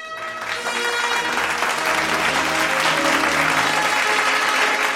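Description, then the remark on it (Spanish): Steady applause from a group starts after a brief moment and keeps going at an even, loud level, a dense wash of clapping with faint tonal hum underneath. “unos aplausos por habernos acompañado el día de hoy.”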